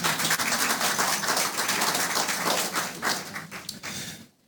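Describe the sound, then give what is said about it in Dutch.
A crowd of Laren residents applauds themselves at the mayor's invitation, dense, steady clapping, a broad crackling wash of many hands that holds loud for about four seconds, then fades out quickly. No one speaks. “Applaus voor uzelf.”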